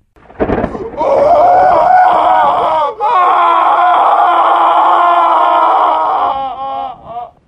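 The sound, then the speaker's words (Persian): A girl screams loudly and at length, one sustained shrill cry that breaks briefly, then resumes before trailing off into shaky gasps. Close and piercing, with no other sounds. “با صدای فریاد دختر از جا و مسافر از خواب می جهند صورتها بیدار شده اند و حرکت می کنند چی بود؟”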